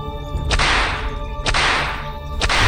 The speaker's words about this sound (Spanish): Y de vez en cuando se escuchaban los golpes por el látigo del capataz.